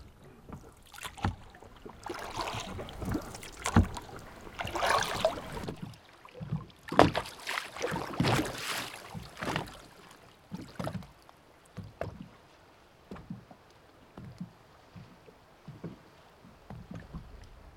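Oars creak and splash through water as a wooden rowboat without a motor is rowed out on Storsjön lake, with repeated rhythmic strokes, knocks and sloshing and a soft breeze behind.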